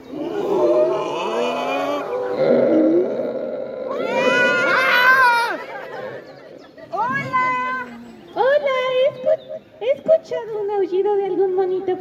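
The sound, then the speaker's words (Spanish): A crowd of people imitates howler monkey calls together on the count of three: many overlapping voices whooping and wailing with rising and falling pitch. The calls are loud and continuous, then break into shorter bursts toward the end. “Me da mucho gusto que estén aprendiendo el llamado del aullador.”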